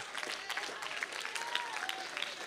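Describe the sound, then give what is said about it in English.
A crowd claps steadily to thank God, dense overlapping hand claps filling the space with a continuous patter, with faint voices and a brief whistle-like tone rising above the applause. “Oh, somebody ought to stand on your feet and clap your hands and thank God for His mighty promises.”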